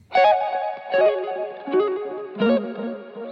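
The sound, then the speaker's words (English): A slow electric guitar melody of four sustained notes, the same part played twice and panned left and right, the right-hand guitar harmonised in a second part; a Stack preset, Decapitator saturation and an RC20 on the guitar bus add a wobbly chorus-like effect and a soft wash of space. Fairly loud, no voices. “In the second half of the melody, I harmonise the right hand guitar.”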